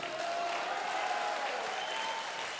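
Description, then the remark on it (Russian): A crowd applauds steadily for a few seconds, giving applause to Jesus, a dense, even wash of clapping with no one speaking over it. “Давай дадим Иисусу большие аплодисменты.”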